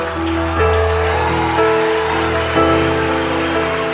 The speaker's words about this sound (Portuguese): E se subir mais alguém aqui, vamos explodir em palmas, igreja. Se subir mais alguém aqui, vamos explodir em palmas.